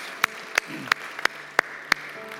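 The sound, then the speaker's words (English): Applause for three individuals at a first service, made of about six sharp, evenly spaced claps ringing out in a steady rhythm over a faint low hum, with no talking. “Can we give these three individuals in first service a huge round of applause?”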